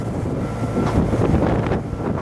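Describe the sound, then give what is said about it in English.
Harsh, freezing winter wind roars steadily and loudly at a highway-railway bridge construction site at the Zhoushan Islands in the East China Sea, China, buffeting the microphone with low rumbling gusts and a broad hiss, continuous throughout with no voices. “freezing winter wind is blowing harshly, forcing much of the marine building activities to a halt.”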